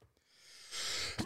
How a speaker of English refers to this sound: oh, sneeze. Pollen is outside today, boys and girls and other.